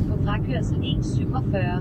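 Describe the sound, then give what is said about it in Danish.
A steady, dense low rumble inside a car while driving on the way to the next guest, continuous throughout, with indistinct voices talking over the engine and road noise. “Så sidder vi i bilen igen.”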